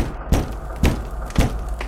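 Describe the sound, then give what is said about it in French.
Heavy, booming knocks on a house door by a returning ogre: three loud thuds about half a second apart, followed by a fainter fourth rap, with no voices. “Soudain, on frappa à la porte.”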